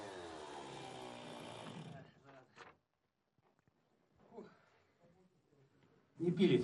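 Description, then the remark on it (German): A chainsaw roars for about two seconds as it cuts through river ice to free the propeller shaft of a ship, run by the chief engineer of the ship Akademik Gubkin, then falls quiet apart from faint scattered sounds, before a short, loud burst of noise at the end. “Offenbar arbeitet er auch als Eissäger.”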